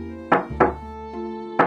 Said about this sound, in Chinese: 结果那人还在外边一个劲儿敲门。